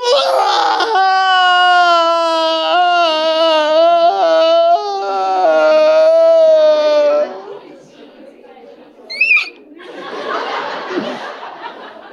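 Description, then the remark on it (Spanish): A voice loudly imitates bawling, letting out a long, wavering wail for several seconds before breaking off, followed by a short gasp and quieter breathy noise. “Tú puedes llorar, tú puedes estar triste, es sano expresar que uno está triste, pero no es sano llorar toda la noche a gritos. Porque es que berrear es como...”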